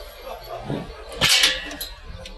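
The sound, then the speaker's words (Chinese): The main gate door of a residential compound opens and shuts as someone passes through on a warm spring day: a loud, harsh metallic clatter in the middle, followed by a few sharper clicks and knocks, over a steady low background hum. “我穿过小区的大门，你会听到开门声，也会听到关门声，还有保安大叔的声音。”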